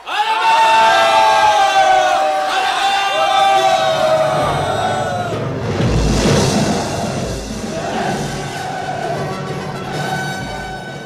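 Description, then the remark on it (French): A loud crowd of vagabonds shouts and yells together in a sustained, chaotic roar, with rising cries and thuds as the mass surges forward to climb a ladder propped against the balustrade of a church gallery. “À la suite de Jean Frollo, la foule des truands se pressa pour gravir les roides échelons.”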